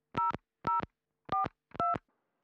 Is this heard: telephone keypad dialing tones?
yes